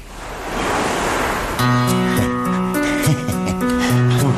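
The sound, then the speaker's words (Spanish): Ocean waves rush and wash onto the shore in a steady, full roar, then a tuneful melody of sustained notes comes in over the continuing surf. “Verás como voy aquí al lado del mar, tranquilo, relajado, se me va todo.”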